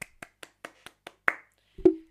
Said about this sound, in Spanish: Oye, un aplauso por ella. A ver, permítamelo, permiso.